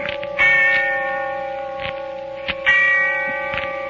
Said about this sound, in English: And the sound of the bell tolling away in the darkness of early evening.